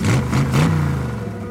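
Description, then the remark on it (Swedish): A small moped engine revs up in a few quick bursts, its buzzing pitch climbing, then settles into a steady drone as it drives away from tents on a grassy area. It is fairly loud, with no voices. “Efter lite tjafs åker de därifrån.”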